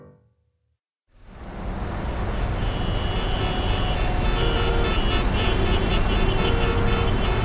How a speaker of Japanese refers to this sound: 働く私たちにとって移動中の渋滞は本当に嫌